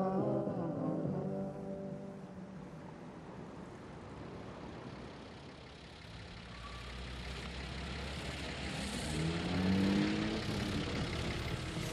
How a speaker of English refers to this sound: 5 o'clock Sunday afternoon and I'm stuck in a traffic jam that stretches 150 miles from Ocean City to Washington.